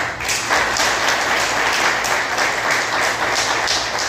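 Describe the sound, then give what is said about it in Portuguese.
A crowd applauds steadily for about four seconds, a dense, even wash of many hands clapping at a constant loudness with no voices over it. “E queria agradecer também a uma pessoa, e eu queria agradecer e pedir que aplaudissem ele”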